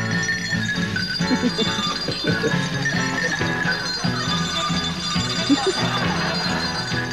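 Bells ring continuously in a dense, overlapping peal, with bright metallic overtones and strikes coming every fraction of a second at a steady, moderately loud level. No voices are heard.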